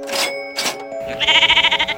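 A sheep bleats in a wavering, quavering baa lasting under a second, preceded by two brief breathy bursts, loud with no talking.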